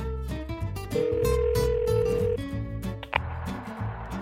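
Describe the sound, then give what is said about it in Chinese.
A phone call's ringing tone, one steady mid-pitched beep held for about a second and a half, plays over bright, busy background music as a call is placed to the Little Witch from the story of the bear cub who became a giant. Nobody speaks. “那我们就打给熊宝宝变成巨人了的小巫婆吧。”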